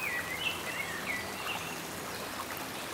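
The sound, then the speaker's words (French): A steady babble of a stream's flowing water, shining in the sunlight among trees, with a few faint high chirps, likely birds, in the first half and no voices. “Et vous découvrez cette eau qui coule, qui brille sous les rayons du soleil.”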